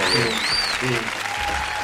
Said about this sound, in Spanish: ¡Eso! Aquí hay aplausos, amigos. Postproducción aquí van a quedar unos aplausos.